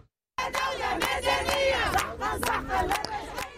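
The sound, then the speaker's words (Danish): A crowd of women shouting in protest at the Tunisian parliament as a silver-grey car separates them and a black metal gate opens. Their raised voices overlap in a dense, continuous roar with sharp high-pitched cries rising above it, loud from start to finish after a brief silent moment. “Tilbage ved det tunesiske parlament, der får den sølvgrå bil adskilt de råbende kvinder, da den sorte metalport den åbner.”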